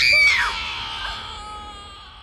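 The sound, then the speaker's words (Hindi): Shrill screams of horror inside a haveli burst out loudly at once, high-pitched and piercing, then trail off into a long, fading wail over a couple of seconds. “रिया की चीख पूरी हवेली में गूंज रही थी और अचानक रिया की गर्दन कट कर नीचे आ गिरी ये देख दिव्या और राहुल के गले से चीख निकल गई”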